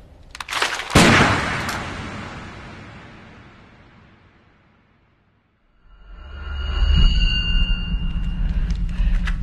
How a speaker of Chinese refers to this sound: 小黑和毛毛几乎同时开枪，小黑打中了毛毛的手臂，毛毛的子弹却打碎了窗户。